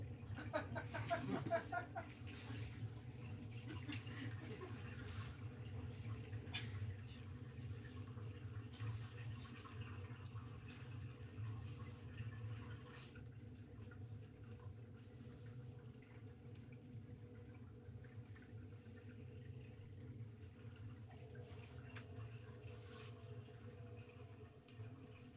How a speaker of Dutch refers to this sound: het geluid van de stad onder water.